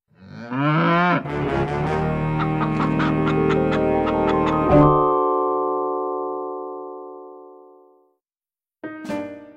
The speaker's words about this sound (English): In the background, he heard the cows busy at work. Click, clack, moo. Click, clack, moo. Clickety clack, moo.